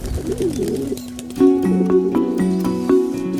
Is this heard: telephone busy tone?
no